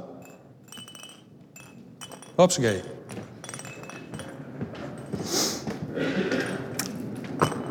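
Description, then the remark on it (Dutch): A weighted roly-poly toy standing on a piano is knocked with one sharp tap and wobbles back upright with a light, glassy tinkling that fades out, while a person talks. “Kijk, als je hem een klap geeft, hij komt steeds weer rechtop.”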